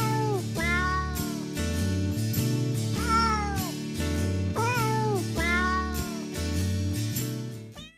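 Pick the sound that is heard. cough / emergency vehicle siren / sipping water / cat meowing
cat meowing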